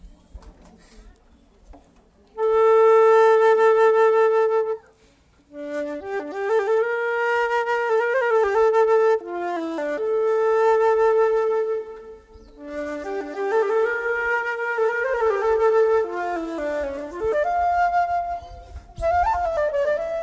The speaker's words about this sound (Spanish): va a interpretar un fragmento para que escuchen la flauta traversa.